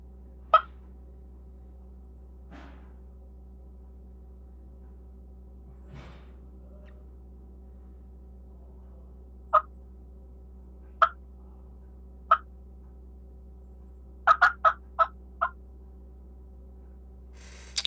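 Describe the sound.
An old hen turkey cackle played on a call, imitating hill-country hens flying down from the tree onto ridge tops: sharp, scattered clucks spaced seconds apart, then a quick rapid burst of notes near the end, over a steady low hum.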